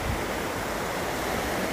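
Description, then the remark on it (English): Steady, continuous roar of ocean surf with white foamy wave tops washing ashore in the dark, fairly loud, with a broad hissing wash and no individual break standing out. No voices. “Um, there's only the white uh, foamy tops of the waves that I can see.”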